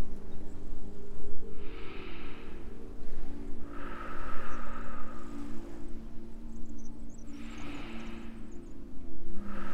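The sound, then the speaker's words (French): Water laps in soft, recurring swells, three gentle washes rising and falling over a steady low rumbling hum, with no voices present. “Toujours calé sur le clapotis de l'eau, relâchez votre thorax maintenant.”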